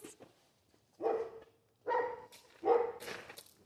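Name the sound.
dog barking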